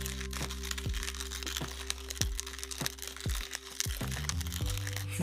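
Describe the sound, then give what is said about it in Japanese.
A hand-cranked coffee mill grinds beans with its lid opened slightly, giving a crisp, slightly bright, higher crunching and crackling with a steady low rumble, continuous, with no talking. “いやほんまにいいわこの音今これ蓋をしているんですけどもこれ引き引いてる手引きのミルをねなんか手引きミルの蓋をちょっと開けるとまたね違った音がするんですよちょっとこう高くなるというかね”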